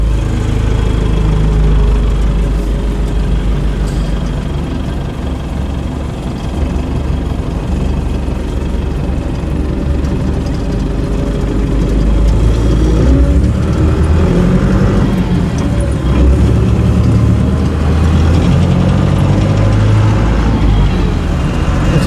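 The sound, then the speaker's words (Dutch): A vehicle engine drones steadily throughout while driving, a loud, continuous low rumble with road noise and slight shifts in pitch, no voices. “leuke route die je rijdt.”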